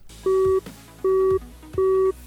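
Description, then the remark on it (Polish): Three identical short tones repeat at an even pace, the steady beep-pause pattern of a busy signal after a phone call ends, clear, with a faint hum underneath. “Połączenie zakończone.”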